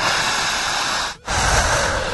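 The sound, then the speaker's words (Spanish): Loud, forceful breathing, a long rushing exhale, then a brief catch before another heavy breath surges in, strained and hissing, with no talking. “Siga respirando.”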